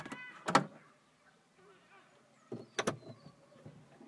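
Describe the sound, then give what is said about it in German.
The wooden egg hatch of a chicken coop is opened, with two sharp knocking clunks about two seconds apart and faint rustling and murmurs in between. “Ich werde jetzt die Eierklappe öffnen und ihr seid, bleibt die ganze Zeit in einem Hühnerstall.”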